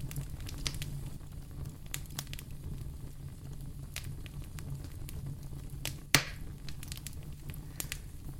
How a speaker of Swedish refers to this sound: Lyssna till eldens sprakande ljud.